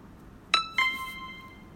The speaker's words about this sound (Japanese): あ、ピンポン押したけどちょっと時間ないかも。